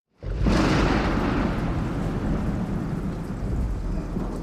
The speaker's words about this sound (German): Grellgelbe Blitze durchschneiden den pechschwarzen Himmel. Eiskalter Regen peitscht übers Deck. Der Wind schleudert das Segelschiff gegen haushohe Wellenberge.